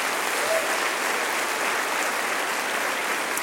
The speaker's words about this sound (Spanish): Dale otro aplauso, sí, él merece otro aplauso.